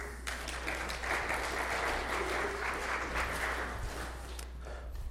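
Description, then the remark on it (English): An audience applauds two volunteers steadily for about five seconds, a dense, even patter of many hands clapping at a fairly constant loudness before tapering slightly at the end. “But let's give these guys a round of applause.”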